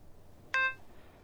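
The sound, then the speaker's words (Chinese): A single short electronic telephone beep as a phone call is hung up, bright and tonal with a clear sharp onset, sounds once and fades quickly into a faint background hiss, with no talking. “挂上了电话”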